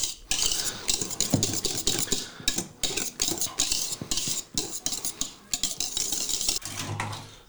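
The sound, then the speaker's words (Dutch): A spoon clinks and scrapes rhythmically against a bowl, stirring in quick repeated strokes with soft wet sounds as pudding is mixed and served, with no one speaking. “Pudding is klaar”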